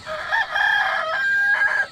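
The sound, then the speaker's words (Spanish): A rooster crows once, a loud, strained cock-a-doodle-doo that holds its harsh, piercing pitch for about two seconds before breaking off. No one speaks. “Guarda el dinero que ya cantó el gallo.”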